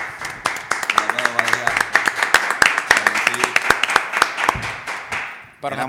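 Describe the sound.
A small group claps steadily for about five seconds, the sharp irregular claps overlapping into brisk applause, with voices calling out underneath before it stops abruptly.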